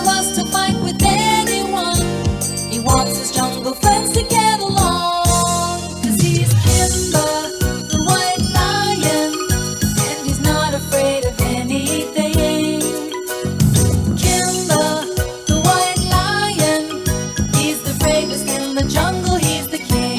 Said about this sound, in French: Kimba the White Lion, le générique qu'on peut entendre sur les épisodes des aventures de Kimba le roi de la jungle, une version anglo-saxonne de la série originale du roi Léo.